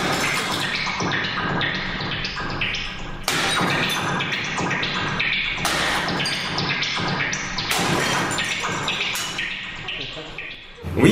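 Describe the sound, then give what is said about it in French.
Loud blows of a very large hammer smashing bricks, amplified and electronically altered, land at irregular intervals over a dense, churning texture with an odd bubbling quality. “on, brise les briques avec un super gros marteau euh, amplifié. Puis le son du marteau est modifié, puis ça fait le genre de bruit de bulle”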